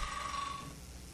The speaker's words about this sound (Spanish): Pues es que ese sonido de Brian en el celular me sacó de onda.